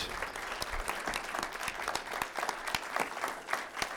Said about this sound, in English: Uh, can you guys give them a, a big, big round of applause? Thank you so much.